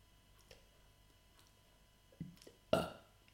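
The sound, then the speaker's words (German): A person who swallowed air to burp lets out a short, loud burp near the end, preceded by a couple of smaller gulping, throaty sounds; no talking. “die ganze Zeit versucht zu rülpsen”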